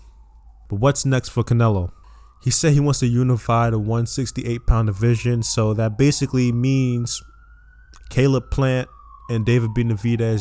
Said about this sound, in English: And I don't know if you can hear the ambulance in the background. It's very loud. It's annoying. I'm gonna wait for it to go away.